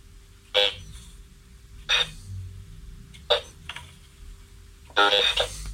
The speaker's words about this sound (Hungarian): Képes Gábornak van is egy ilyen Braille Lab gépe otthon, amit most megszólaltat a mi kedvünkért